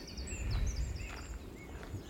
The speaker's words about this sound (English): And there's just bird life everywhere. There's a lot of blackbirds singing, a lot of tits flitting through the trees. And this great spotted woodpecker ahead.